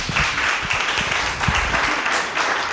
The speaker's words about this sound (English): All right, guys, we're gonna go on to the next one. If we can round of applause for these guys.